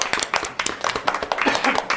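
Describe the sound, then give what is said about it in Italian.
Steady applause from several people for a correct quiz answer, a dense patter of hand claps that carries evenly through the whole moment at moderate loudness. “Giustissima anche Un questa! applausone!”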